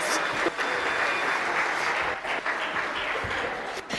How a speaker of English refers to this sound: Thank you. Give them a round of applause. A round of applause.